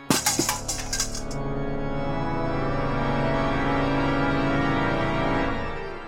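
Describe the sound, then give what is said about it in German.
A tin bowl, kicked off a stool, drops and clatters on a cold stone floor, with a quick burst of bouncing rattles followed by a long, steady metallic ringing that slowly fades. It is loud, and no one speaks. “Laut scheppernd fällt der Napf auf den kalten Steinboden.”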